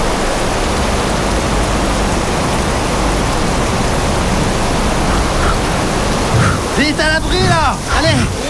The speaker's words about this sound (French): Allez. on court Ah putain, tu parles d'une tu parles d'une saucée, ouais Ah, les trompes Oh là là, vache qui pisse, ah.